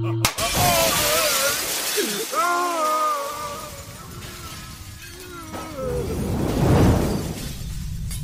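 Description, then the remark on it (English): A figure pierced by an arrow shatters into a million pieces: a sudden loud shattering burst, followed by a long spray of bright, crackling debris and wavering ringing tones that swell again before slowly fading, dense throughout. “Arya of Ravan's passion, shattered into a million pieces”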